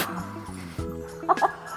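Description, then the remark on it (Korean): A voice on a radio show mimics a crow with two quick, harsh caws in close succession, loud, following steady sustained instrumental tones that carry on underneath. “진짜 까마귀인 줄 알았어요.”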